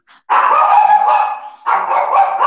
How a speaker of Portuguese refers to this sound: cachorro aqui. Né? Aí vou desligar, porque ela não, ela não para.